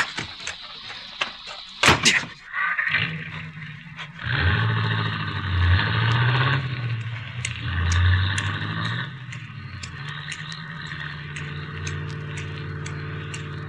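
A sharp, loud thud like a car door slamming shut, followed by a low engine rumble that swells and idles for several seconds before fading, with faint ticking in the background.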